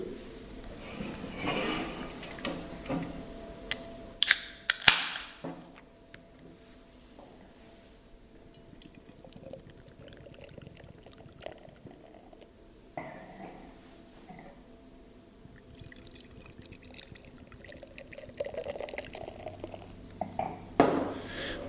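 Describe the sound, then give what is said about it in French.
A 44-centilitre can of Black IPA beer is cracked open with a sharp hiss and pop, then poured into a glass, the liquid gurgling and fizzing steadily, with scattered small clinks and no talking. “Voilà, donc c'est de la canette format 44 centilitres parce que nous on trouve que 33 c'est toujours frustrant, on n'en a jamais assez, donc on a fait du 44.”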